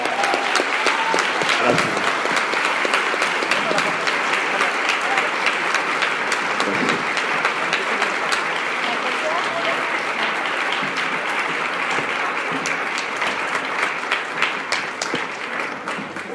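Sustained applause from an audience fills the room, a dense, steady patter of many hands clapping at even loudness for the whole stretch, with no voices standing out.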